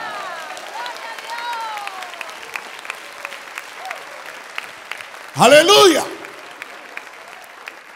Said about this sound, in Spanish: Las águilas levanten sus manos y den un aplauso al Rey de Gloria.